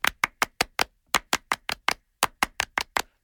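A French applause: three bursts of five sharp, crisp hand claps in a steady rhythm, with brief pauses between each group, fairly loud with no one talking.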